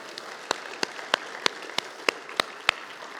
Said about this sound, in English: Now, you got your little applause going. That's good.